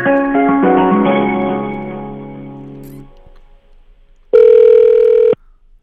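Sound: telephone dialing and ringing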